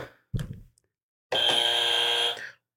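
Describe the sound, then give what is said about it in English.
A quick thump of a button being struck during a trivia quiz, followed by a loud quiz buzzer blaring a steady, harsh tone for about a second before cutting off. “You gonna hit your buzzer?”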